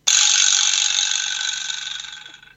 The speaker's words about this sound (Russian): Э, да, конечно, вибро слэп есть рядом. Все, все под рукой у группы. Сейчас ты используешь это.